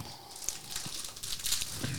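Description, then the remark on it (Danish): A plastic bag of liquorice candy crinkles and rustles in quick, irregular bursts of bright crackling, fairly loud and continuous for about two seconds, with no voices over it. “Så skal jeg have noget, der knitrer.”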